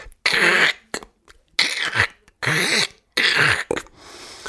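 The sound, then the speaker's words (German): A voice imitates a man in a concert audience biting into potato chips, with four loud, harsh, breathy bursts in a steady rhythm, followed by a brief quiet hiss. “der einfach sehr laut äh, seinen Chips knabberte”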